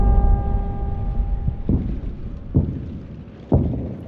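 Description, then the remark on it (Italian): A dull, deep rumble of bombers passing overhead on a dark night in 1943, a steady low drone with a faint engine hum, broken by several heavy booming thuds in the second half. “La notte è buia e sopra le nostre teste sentiamo il rombo sordo dei bombardieri passare minacciosi.”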